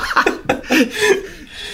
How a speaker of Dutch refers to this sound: Hoesten? hoesten. Inderdaad, ik denk, ik, eh, ik doe het even weg van de microfoon zodat het makkelijk om te knippen is, maar aangezien je het toch even bedoelt.